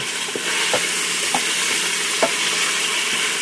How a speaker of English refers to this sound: And you can hear it. The the browning the, the part that's not browned is making a little sizzling noise. And I can tell by the feel of the spurtle on the aluminum pot that we're getting some nice caramely bits in there